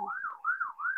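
timer alarm going off

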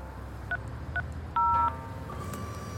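telephone keypad dialing tones

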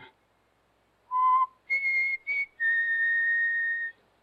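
person whistling

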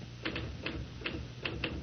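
typewriter typing

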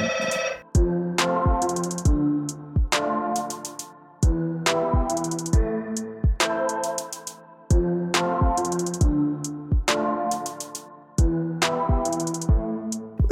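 telephone ringing

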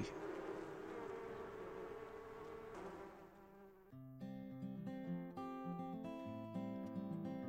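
swarm of bees buzzing

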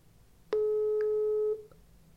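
outgoing phone call tone

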